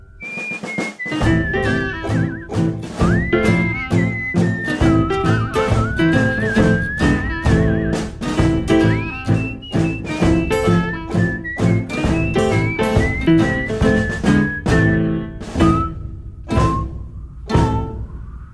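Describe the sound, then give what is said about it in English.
A man whistles a wandering melody over a steady accompaniment of plucked, percussive chords, the whistle bright and continuous with gliding pitch, ending as the notes thin out. “I first heard his whistle on the Chilkoot Trail.”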